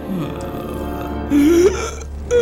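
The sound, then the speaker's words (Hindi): A voice imitates the loud final hiccup of the dying Yatindranath, a single drawn-out, rising croak near the middle, set against a steady low hum with no speech around it. “और जब वंदे मातरम गीत समाप्त हो रहा था एक तेज हिचकी के साथ यतीन्द्रनाथ के प्राण पखेरु उड़ गए”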